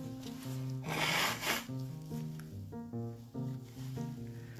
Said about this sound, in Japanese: はいちょっとごめんなさいね ちょっとちょっと鼻かんでいいですか